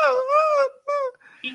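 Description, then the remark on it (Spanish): A person's voice mimics a dog's whimpering, performed in the style of an old radio drama, in two drawn-out, high-pitched whines, the second shorter, followed by a brief breathy sound. “que ese es un perro?”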